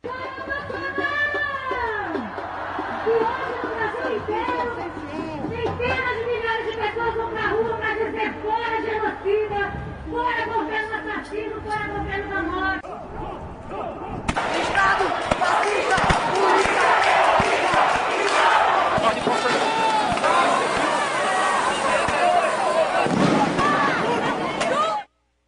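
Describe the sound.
A street protest crowd in Recife, Brazil, clashing with military police in a chaotic confrontation: many voices shout and cry out over each other, then the commotion swells midway into a louder, rougher roar of yelling and scuffling that lasts to the end.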